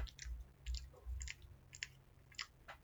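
Wet chewing sounds from someone chewing food noisily repeat in a steady rhythm, with crisp smacking bursts about every half second and low muffled thumps of a jaw working food, no voices.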